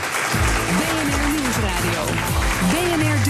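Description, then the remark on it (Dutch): A crowd applauds politicians steadily for a few seconds, a dense wash of clapping that stays loud throughout, with a voice or voices speaking over it. “Groot applaus voor de politici”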